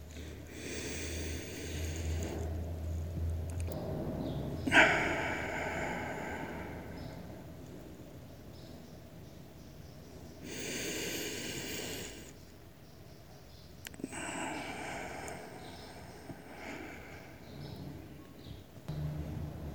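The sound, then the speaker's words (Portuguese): Slow, deep breaths drawn in and let out during a guided meditation, long airy whooshes repeating in an unhurried rhythm, fairly soft, with quiet pauses between them and no talking. “Vamos começar como sempre, com aquela respiração lenta.”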